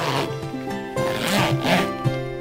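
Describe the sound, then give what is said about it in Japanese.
A cushion cover's zipper is pulled open in a continuous raspy run of short ticking bursts, over a steady tonal musical background; the cushion inside is packed directly with cotton wadding. “あのこの商品で言わせていただくと、うん、の中に、えっと、直接ワタが入っているのでボリュームをコントロールできるんですけれどちょっと見ていただきましょうか持ってきましょうかええチャックがついてますね”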